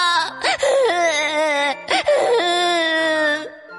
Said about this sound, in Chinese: 他不停的哭，哭得可伤心了。